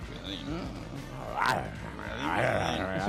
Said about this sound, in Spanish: Cocodrilo este loco que me asusta.